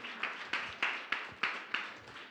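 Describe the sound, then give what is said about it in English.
Steady rhythmic clapping from a group giving a participant a hand, about eight sharp, bright claps evenly spaced roughly a third of a second apart, moderately loud with no voices over them. “Some more more more robust clapping.”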